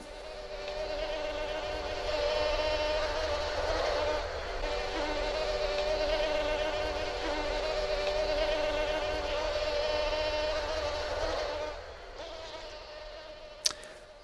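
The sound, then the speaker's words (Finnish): A dense, continuous high-pitched whine of mosquitoes buzzing, recorded in 1993, steady and droning for the whole stretch, with a brief sharp click near the end and no voices. “Retlaiden hyttyset, niin siinä vuonna 1993 noin tai silloinen sukupolvi.”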